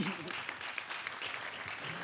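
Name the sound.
applause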